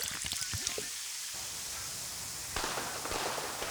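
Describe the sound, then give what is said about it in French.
A fireworks display fired from the Maharaja Limousine's villa crackles and sizzles in a dense, continuous spray of small pops, with a few sharper bursts standing out; the sound is moderately loud and slightly distant. “On voit au loin, tiré depuis la villa du Maharaja Limousine, un feu d'artifice.”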